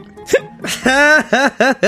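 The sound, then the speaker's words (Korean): A person hiccups a few times: two sharp catches, then a run of short, voiced hiccup sounds in quick, uneven succession, with no words spoken. “어 딸꾹질 아 딸꾹질.”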